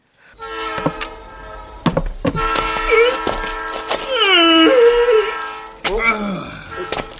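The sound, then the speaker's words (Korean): A train pulls into a station with a loud, sustained horn blast over clanking rail noise and metallic knocks, the pitch bending and squealing near the end as it slows. “기차가 들어오는 소리가 나면 허리를 쭉 펴고 하품을 한 다음 어슬렁어슬렁 기차를 타러 갔다.”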